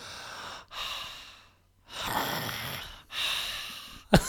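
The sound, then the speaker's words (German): A person imitates a man's loud open-mouthed breathing while asleep: four long, airy, rasping breaths in a slow rhythm, fairly loud, separated by brief pauses, ending with a short sharp catch. “Sondern der atmet dann einfach mega laut. Der atmet so.”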